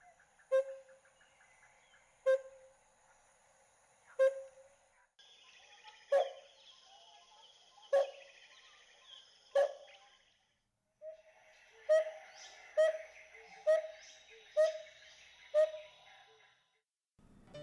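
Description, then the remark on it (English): A yellow-billed barbet gives a series of short, clear hooting notes, evenly spaced about two seconds apart, then quickening into a faster run, with soft forest ambience behind. “The bird for today is a yellow-billed barbet.”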